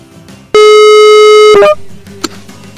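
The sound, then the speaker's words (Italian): A WhatsApp call ringing tone as a call is placed abroad: one loud, steady electronic tone lasting about a second, ending in a brief wavering chirp, then fading into quiet. “ci riproviamo e lo chiamiamo da Whatsapp?”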